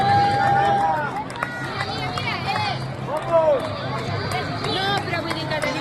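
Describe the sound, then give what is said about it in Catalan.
Busy outdoor ambience at the finish of the Behobia race in San Sebastián, recorded Sunday 12 November: a steady wash of crowd chatter and cheering, with runners' footsteps and scattered whistles or shouts rising over the continuous hubbub, loud throughout. “Doncs mira, eh, forma part d'un vídeo que vaig gravar el diumenge 12 de novembre a l'arribada de la Biòbia a Sant Sebastià.”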